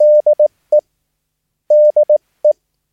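A steady Morse code (CW) tone beeps out the traffic abbreviation 'DE' (David Erik), a long dash and two short dots followed by a single dot, then repeats the same pattern after a brief pause, clear and alone.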